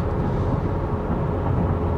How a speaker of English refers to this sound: So we're taking the opportunity to hustle up from uh, Chicago to Milwaukee via pickup truck. So if the road noise in the background is irritating, it's, uh, it's my fault.